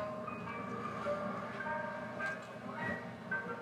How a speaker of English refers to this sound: So, one of the elements I used was this ice cream truck